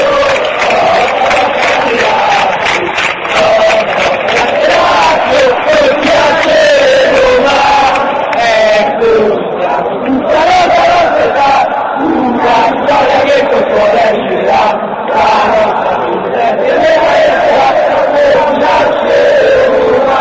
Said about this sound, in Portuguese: Mais um canto de incentivo é. por parte dos laziados. E acho que vocês vão reconhecer a melodia também.